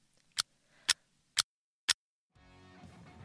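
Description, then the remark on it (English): Four crisp clock ticks land at an even half-second pace, loud, before a rising wash of noise or music swells in and continues to the end. “the clock ticked to 28th of June.”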